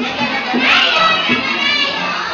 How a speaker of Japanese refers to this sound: 先生に拍手お願いします。